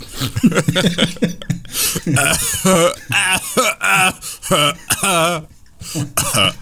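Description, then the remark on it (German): A loud run of repeated coughs and throat-clearing bursts, broken up by wavering, half-sung vocal sounds from the same voice, with short pauses between the fits. “Ich also huste heutzutage. jetzt für die ….”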